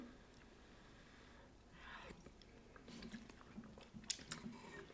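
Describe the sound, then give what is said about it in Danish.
Chewing of soup with wood ear mushrooms in chicken broth with miso, fried grated ginger and garlic, quiet at first, then a run of moist, slightly crunchy bites over the last few seconds, with no one talking. “Der er meget bid i judasørene faktisk.”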